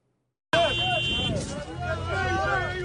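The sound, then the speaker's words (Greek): Thousands of Libyans protest in the streets of Tripoli, a large crowd clamoring and shouting slogans together in a loud, continuous roar that starts abruptly and keeps going, with a few raised voices standing out, as they try to get into the Foreign Ministry. “Χιλιάδε Λίβοι βγαίνουν στου δρόμου τη Τρίπολη και διαμαρτύρονται.”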